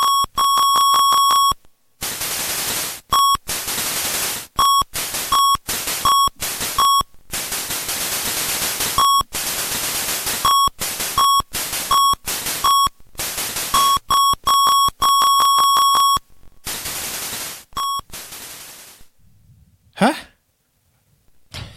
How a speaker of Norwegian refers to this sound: Var dere NES-musikken? Ja. Det er musikk henta fra NES-spillet.